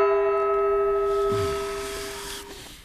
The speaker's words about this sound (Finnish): Viimeinen kongin kumahdus tarkoittaa sitä, että kohtaan tuomarin vuoro